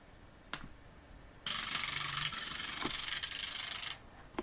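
A braille display's pins, driven by magnets rather than piezoelectric actuators, push upward with a loud, steady mechanical rasping buzz lasting a couple of seconds, preceded by a sharp click and dotted with small clicks; no one speaks.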